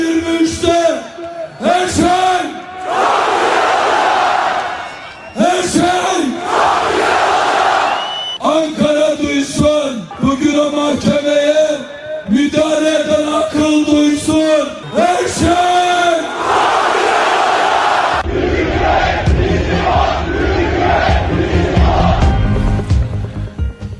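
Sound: crowd chanting protest slogans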